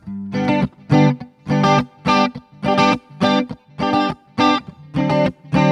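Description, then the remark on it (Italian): A guitar strummed with a pick in a steady, bouncy cumbia rhythm, about ten bright chord bursts with short gaps between them, fairly loud and with no voices. “Senti un attimo, faccio il plettro, ok. quella c'ha il ritmo così.”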